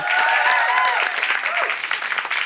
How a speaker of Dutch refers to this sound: Geef hem een daverend applaus.